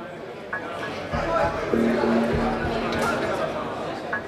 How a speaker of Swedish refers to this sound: Nu har Janne åkt ut till Solvalla travbana i Stockholm.